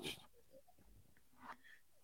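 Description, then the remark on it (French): A person makes snoring, snorting noises close to the microphone: a loud rough burst at the start, a few softer wheezy sounds, then another snort near the end. “On a eu un ronflement.”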